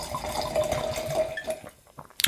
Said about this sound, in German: Ich schenke in das zweite Glas was ein.